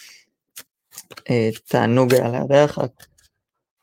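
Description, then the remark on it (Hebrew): A deck of cards being shuffled for drawing the daily card gives a few crisp, scattered snaps and clicks, and then someone speaks briefly over a final soft tap or two. “מה שאתם שומעים זה הקלפים, אנחנו נעשה עכשיו את הקלף היומי ונמשיך ליום שלנו.”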